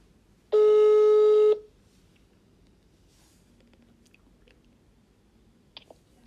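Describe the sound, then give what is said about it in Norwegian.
One loud, steady telephone ringing tone as a phone call is placed sounds for about a second, then gives way to near-silence broken only by a few faint clicks and a small tap at the end. “Eh, så da skal vi bare ta fatt på telefonen mm. og ringe, eh, ringe, her og sjekke om vi får svar.”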